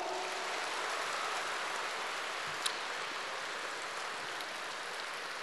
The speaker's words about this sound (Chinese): 我看你们鼓掌的都是明白人